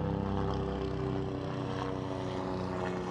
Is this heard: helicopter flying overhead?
yes